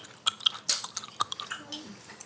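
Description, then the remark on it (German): Wet smacking and chewing from someone eating ice cream, a string of irregular lip-smacks and soft squishy clicks, fairly quiet, with no talking. “Ist doch bestimmt angenehm, jetzt unser Schmatzen hier zu hören.”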